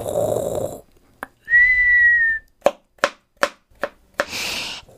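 A grandmother's low rasping snore opens, followed by someone's sustained steady whistled tone. Then comes a string of sharp chops as a father cuts a vegetable with a knife on a board in an uneven rhythm, ending with a breathy rush. No talking.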